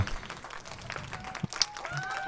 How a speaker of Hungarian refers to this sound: Majd, majd lesz majd azt is, majd megígérem, mert néhányszor kifelejtem az adásokból a tapsot.